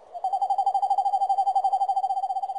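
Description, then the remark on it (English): A person imitates a screech owl with a steady, rapid trilling hoot, a single continuous wavering tone that lasts a couple of seconds, fairly loud, with no talking. “asked me last summer what a screech owl sounded like.”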